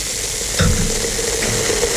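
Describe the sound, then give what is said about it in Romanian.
A steady, fizzing hiss of sparkling wine bubbling in a glass, with dense crackling pops throughout and a brief louder burst just before the middle. No voices are heard. “Furtună într-un pahar cu spumant.”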